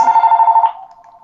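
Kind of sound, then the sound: household object, home telephone ringing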